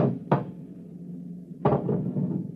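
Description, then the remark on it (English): Two sharp metallic clunks, a second or so apart, as a door lock is opened, over a low steady background rumble. No one speaks. “It's at the door. Get ready. It's opening the lock.”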